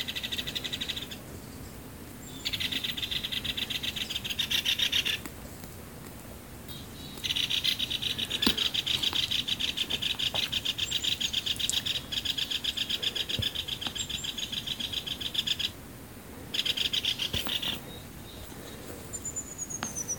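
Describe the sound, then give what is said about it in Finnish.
Two great spotted woodpeckers at a suet feeder and a dead pine snag in a yard, in frost of just under 30 degrees, make bursts of rapid, rattling, sharp ticks that start and stop in stretches of a few seconds, fairly loud and high-pitched, with no voices present. “No niin, paljastetaan eli käpytikkoja.”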